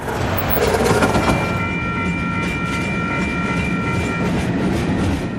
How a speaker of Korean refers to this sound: 미주리주 시델리아의 철도 위로 기차가 지나갑니다.